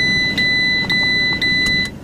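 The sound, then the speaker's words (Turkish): A car's seatbelt warning chime beeps repeatedly in a steady, high-pitched rhythm, roughly twice a second, over the low rumble of a running engine. “Ses yapıyor, çok rahatsızlık veriyor. Yani hemen böyle 2 dakikalık bir yere gitsek araba ötüyor yani.”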